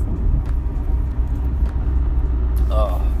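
Steady low engine rumble and road noise fill a car cabin while driving in smooth-flowing traffic, continuous and fairly loud throughout, with a brief high tonal chirp near the end.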